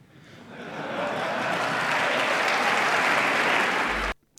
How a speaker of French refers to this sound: Alors j'ai laissé les applaudissements parce que tu n'as pas l'image, cher toi, mais je trouve délectable de voir les républicains américains se lever et applaudir Macron quand on connaît leur position sur l'environnement.